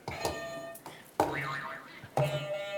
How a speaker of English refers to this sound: I love these buzzers